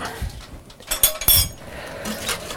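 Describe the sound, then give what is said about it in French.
Two cabbages drop into a metal saucepan with two sharp thuds and a few lighter clanks of the pot around them, with no talking. “Après, le reste qu'on mettra dans cette casserole-là, on va mettre le chou. On va mettre les deux choux.”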